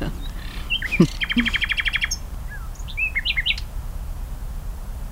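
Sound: nightingale singing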